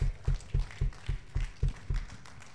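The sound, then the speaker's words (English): Applause from a church audience for its guests, heard as steady, evenly spaced claps with a heavy low thump on each beat, about four per second, continuing without any talking. “And can we get a round of applause for our guests? Another round of applause.”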